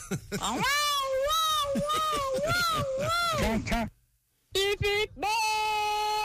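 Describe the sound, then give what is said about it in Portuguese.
A radio listener vocally imitates a car horn with a string of rapid, wavering honks, then a brief silence, followed by a few short beeps and one long, steady held honk, loud. “E a gente descolou semana passada duas placas modelo Mercosul para os nossos ouvintes que deram as buzinadas aqui.”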